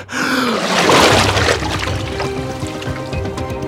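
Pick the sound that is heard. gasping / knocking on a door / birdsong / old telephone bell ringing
gasping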